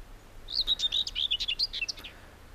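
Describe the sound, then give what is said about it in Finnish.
A common whitethroat's short, scratchy, fast warbling song bursts out and ends abruptly, a quick jumble of chattering notes against a quiet background. “Se on äksyilevän pulppuilevaa, nopeatempoista luritusta, joka alkaa ja loppuu nopeasti.”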